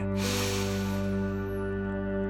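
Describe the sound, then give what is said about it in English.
A single long, airy breath drawn in through the nose during a guided breathing exercise, loud, fading after about a second over a steady, humming musical drone that continues throughout. “Let the rhythm of your breathing be your primary focus.”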